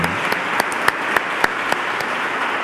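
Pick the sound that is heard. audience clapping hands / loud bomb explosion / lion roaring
audience clapping hands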